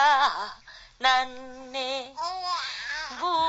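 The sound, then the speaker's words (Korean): A mother sings the Korean folk song Arirang, slow and wavering with long held notes, while her baby daughter, nearly five months old, babbles coos along with her like traditional chuimsae interjections. “취임새처럼 옹알이를 했던 거는 100일이 채 안 되었을 때.”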